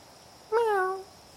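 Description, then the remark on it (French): A single short cat meow, clear, with a bright harmonic tone that slides slightly downward over about half a second against a quiet background. “Venez, mes amis à poil, venez. Nos enfants préférés ont besoin de notre aide chien, chat.”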